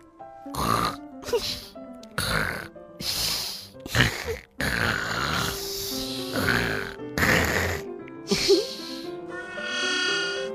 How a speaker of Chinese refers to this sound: 可还没等吃完早餐，就不好玩了。这打呼声。太响了，他俩牢牢捂住耳朵